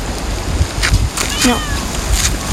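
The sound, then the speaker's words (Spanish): A female cat gives one short, rising-and-falling meow midway through, over a steady hiss of background noise and a few scattered knocks. “Mira que la ahorita lo molesta la gata, la gata de ese cuando, pero la ahorita lo molesta, no, le hace nada hasta que lo molesta.”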